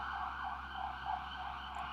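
A steady emergency siren drones outside, its band of tone holding around the midrange with slight wavering, muffled through walls and continuous throughout, with no voices.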